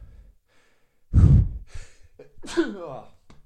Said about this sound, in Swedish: När man, när man nyser när man nyser i, hemlandet brukar man säga, när man håller på att säga någonting och man nyser, man brukar säga att jag ljuger inte.